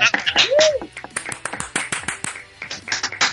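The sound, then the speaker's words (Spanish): A small group claps after an interview in a quick, uneven burst of sharp hand claps lasting a few seconds, with a brief rising-and-falling vocal sound near the start. “Un aplauso, venga.”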